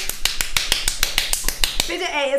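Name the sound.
loud hand clap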